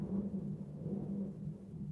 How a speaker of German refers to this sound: Habt ihr es gehört? Ich glaube, hier ist gerade irgendwo ein Blitz eingeschlagen.